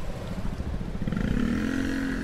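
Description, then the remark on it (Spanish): A Vespa scooter engine starts up for a ride to the market, with a rough, throbbing idle, then revs into a steady, rising buzzy whine that holds loud to the end. No one speaks. “Bueno, pues nada, te montas con nosotros, arrancamos la Vespa y nos vamos al mercado.”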